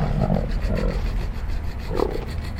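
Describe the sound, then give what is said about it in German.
A camel groans as it is made to kneel while a man calls to it and slowly pulls on its rope: three deep, guttural, rumbling bellows, loud and drawn out, with a throaty growl between them and no talking. “Scheinbar widerwillig geht das Tier in die Knie.”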